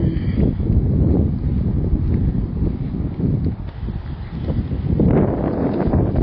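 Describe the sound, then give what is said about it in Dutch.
Steady, loud wind buffeting a microphone outdoors, a low rumbling roar that swells and gusts throughout with no clear speech, surging again strongly near the end. “Oh, en excuses voor de wind. Die gaat nou ineens eh, wat harder bij.”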